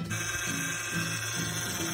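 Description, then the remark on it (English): A car's faulty mechanical noise, a steady loud grinding whine with a low tone that rises and dips in a slow repeating pulse, with no voices. “Hey, buddy, if your car making a sound like this”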